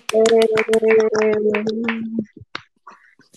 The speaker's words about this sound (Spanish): Entonces, Muchas felicidades a Shotaro y a Sun-chan por Se merecen un aplauso.